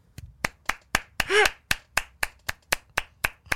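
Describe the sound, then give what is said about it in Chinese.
Steady, evenly spaced hand claps given as applause to encourage the Chinese Jiana Family Association (中华嘉纳家庭协会): about a dozen sharp slaps in quick rhythm, with a brief voiced cry breaking in partway through. “掌声鼓励中华嘉纳家庭协会。”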